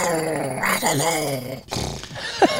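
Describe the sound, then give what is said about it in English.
Fritz the dog growls in a long, wavering grumble that rises and falls in pitch, ending with a brief sharper sound. No one speaks over it. “the only show with a catchphrase of "I don't know," and Fritz the dog agrees.”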